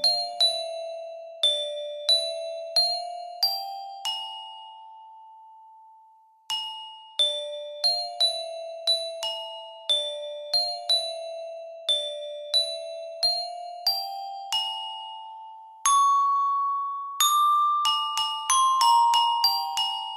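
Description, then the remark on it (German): A song from Israel played with mallets on a pitched percussion instrument, clear ringing notes struck one after another in phrases with brief pauses, ending in a quicker run of tones, no voices. “bewegte sie gekonnt die Klöppel von einem Ton zum nächsten. Eine Melodie zog sich durch den Raum.”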